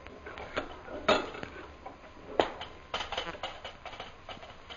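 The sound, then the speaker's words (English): Horse hooves clip-clop in a loose, uneven rhythm as a horse with a girl tied on its back is let out through the gates of a camp, a few sharp knocks standing out before a quicker run of hoofbeats, all over a steady background hiss. “Girl tied on back of horse, most high superior. Good. Now open the gates of the camp and let her go.”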